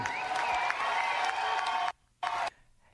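crowd, crowd applause

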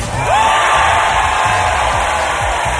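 crowd, studio audience cheering

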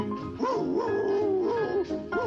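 animal, dogs barking and yipping

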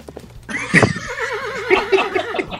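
animal, horse neighing

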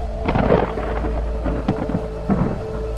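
nature, thunder

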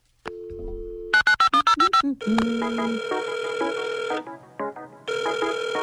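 signal or alarm, telephone ringing

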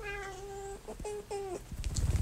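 animal, cat meowing in reply

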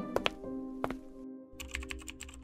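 sound effect, computer keyboard typing

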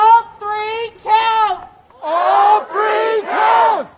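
crowd, crowd cheering and shouting

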